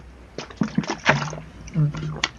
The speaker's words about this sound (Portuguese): Ah, uma pausa aqui pra tomar uma água, por favor.